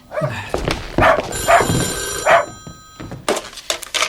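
A dog barks three times in short, sharp bursts while a telephone bell rings steadily in the background.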